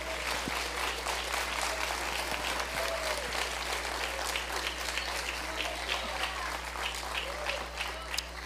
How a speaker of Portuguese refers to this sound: Pode aplaudir. Aplauda.